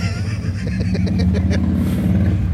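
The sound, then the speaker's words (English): A motorcycle engine rumbles loudly and steadily as it drives past, with a low droning tone and rhythmic mechanical pulsing. “Uh, because we got a motorcycle that just went by too.”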